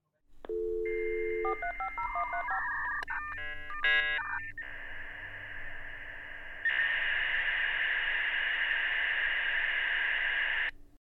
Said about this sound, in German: Hast du eigentlich noch das 56K-Modem erlebt, das Grödelding, ja. wo du dann nicht mehr telefonieren konntest? Geil, oder? Ja. Ja, mega, mega. Ich blende euch, blend euch mal den, ähm, den Toneffekt hier ein.